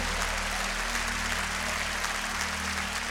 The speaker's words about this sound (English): let's all give President Barack Obama a rousing applause and thank God for the strong leadership, strong leadership,